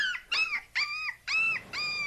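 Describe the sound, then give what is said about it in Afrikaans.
A soft, high whimpering cry heard by the sea after a storm repeats five times in quick succession. Each short wavering whine rises and falls. It sounds far away, grows louder and comes and goes with the waves, with no talking. “Die sagte gehuil word al harder.”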